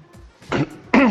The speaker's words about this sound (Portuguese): Até tossia, você viu, né?